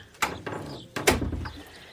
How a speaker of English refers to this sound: Come in and close the door.